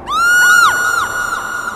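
A loud, piercing scream, heard right beside the ear, held for nearly two seconds, its shrill pitch wavering and swooping up and down as it rings out alone with no talking.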